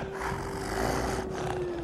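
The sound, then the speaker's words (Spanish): A wolf howl holds one steady, drawn-out pitch for a couple of seconds over a rough, rumbling wash of background noise, fairly loud and with no one speaking. “Los lobos.”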